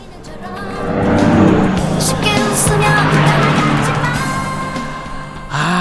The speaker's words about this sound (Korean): 옆차에서 어떤 노래를 듣고 있는지 잘 듣고 맞춰주시는 겁니다. 자, 옆에 차가 지나갑니다. 차 소리와 함께 음악 소리 들려요. 잘 들어보세요.